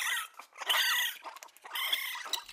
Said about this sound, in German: Und der kleine Waschbär wieder ganz anders.